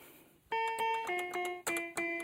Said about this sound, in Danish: Det lyder sådan forholdsvis, ja, som et legetøjs keyboard nu skal lyde.